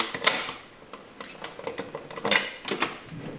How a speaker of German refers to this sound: Das versteckt sich hinter einer weiteren Tür, hinter der das eigentliche Fasslager ist. Und da gehen wir jetzt rein. So, jetzt kommt der große Moment. kleinste magmyre Doppeltür, ja. dicker Schlüssel.